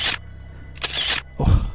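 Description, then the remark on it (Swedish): A camera shutter clicks as the camera is tested to see if it works, followed by a brief mechanical whir and another lower clack, with a faint low hum beneath and no voices. “En kamera.”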